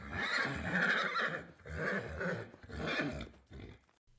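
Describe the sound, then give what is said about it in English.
A horse neighs three times in quick succession, each whinny loud and lasting over a second, with brief pauses between and no voices present. “Without his chariot, driven by a team of horses,”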